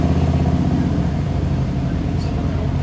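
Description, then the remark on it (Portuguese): A heavy motorcycle engine starts up and rumbles loudly, a deep, steady throbbing with a slight surge that fills the whole few seconds. “Parece ligar na moto aí pesada.”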